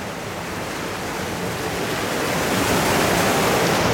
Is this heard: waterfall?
yes